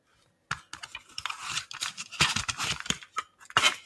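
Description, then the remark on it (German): Plastic clicking and rattling as an audio cassette tape, a music cassette holding an audio play, is handled: a busy run of irregular clacks and scrapes lasting a few seconds and ending with a sharper snap. “Die Älteren erinnern sich noch ans Medium der MC, der Musikkassette.”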